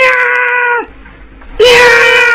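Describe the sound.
A human voice imitates a little female cat meowing: two long, loud, high-pitched yowls separated by a brief quiet gap, the first sliding down at its end and the second starting abruptly.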